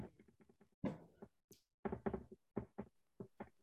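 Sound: knocking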